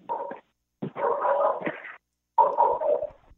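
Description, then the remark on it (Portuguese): A dog barks in three drawn-out, somewhat whiny bursts separated by short pauses, moderately loud, with no one talking. “Tem um cachorro latino aí, mas não é aqui, não.”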